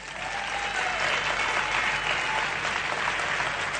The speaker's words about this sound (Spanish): Otra de las cosas, si quiere aplaudir, aplauda, ¿por qué no?